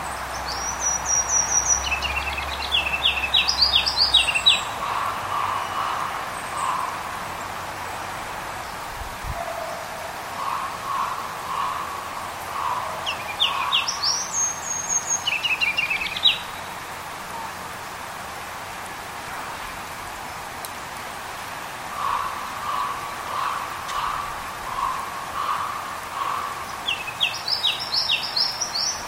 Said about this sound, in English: that was another version of a ruby crown kinglet.